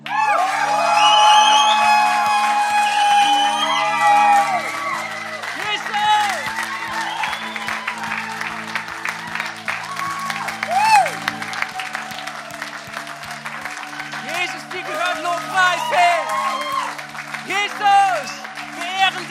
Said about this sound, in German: Und dann an diesem Ort, wir lassen die Decke hochheben, wir jubeln Gott zu, wir geben ihm Ehre, wir geben ihm Applaus, weil er es verdient, weil er König ist, weil er unser Herr ist.